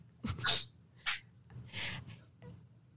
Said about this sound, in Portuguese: Espirradinha da sorte, a espirradinha da sorte.